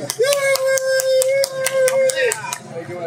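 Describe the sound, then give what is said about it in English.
About a dozen quick, evenly spaced hand claps ring out sharply while a voice holds one steady, mid-pitched note underneath for most of the clapping, welcoming guest Josh Jung onto the show. “As I clap with my hands.”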